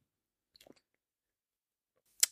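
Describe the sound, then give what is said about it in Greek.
Someone takes a quiet sip of beer: a short cluster of soft, wet mouth clicks and a swallow, followed by one sharp, brief click. No one speaks. “Κάτσε πιο μια γουλιά.”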